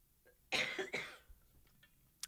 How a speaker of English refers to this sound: I'm going to take a break so that I can clear my throat.